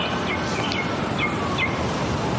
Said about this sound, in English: You hear that bird?